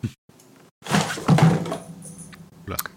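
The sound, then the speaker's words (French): A cat falls with a dull, heavy thud followed by a second of rustling, scraping clatter, then a couple of faint knocks as things settle. No one speaks. “Qui c'est qui est tombé qui, qui, est tombé Mon chat.”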